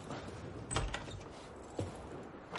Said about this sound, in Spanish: Cierra la puerta y se quita el abrigo.